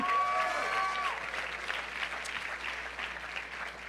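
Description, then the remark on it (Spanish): An audience claps together in a steady, dense patter of applause that holds for several seconds, with a brief high tone sounding faintly through the opening second. “Un aplauso para”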